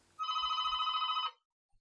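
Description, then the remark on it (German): A telephone bell rings in the morning in one sustained, rapidly trilling burst of about a second, loud, then cuts off into silence. “Ah, das Telefon klingelt wohl schon den ganzen Morgen.”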